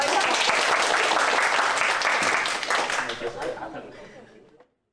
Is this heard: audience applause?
yes